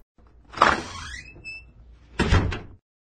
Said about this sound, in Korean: 그때 쪽문이 열리는 소리가 들려 문틈으로 내다보니 노 부인이 부족으로 보이는 붉은 종이를 손에 들고 나와 대문에 붙이는 것이었습니다.